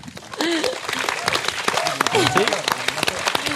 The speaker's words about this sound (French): Donc, on remercie euh, tout le monde, tous les dessinateurs pour euh, les magnifiques dessins d'aujourd'hui, les intervenants de cette session qui ont été absolument passionnants. Merci. On peut applaudir à nouveau, je pense.